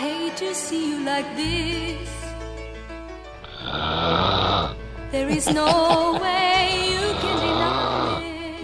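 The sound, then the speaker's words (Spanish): Loud snoring in two long rasping bouts, each breath a rough, rattling drone, with softer nasal sounds and a faint voice before the first snore. “Deja de roncar.”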